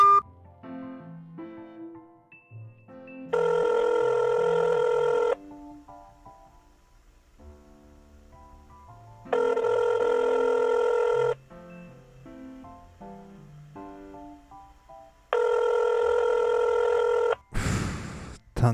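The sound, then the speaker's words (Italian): A phone rings out on an outgoing call: three long, steady rings about four seconds apart, loud over soft background music, then a brief click as the line picks up. “certo non risponderà mai. Oh, non pensavo che avessi ancora il mio numero.”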